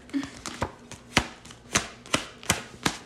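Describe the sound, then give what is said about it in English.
A series of crisp, light slaps as Uno cards are flipped down onto a table one after another during a game, about seven in a steady rhythm, with no talking. “Yeah, just little like flips little... of the Uno.”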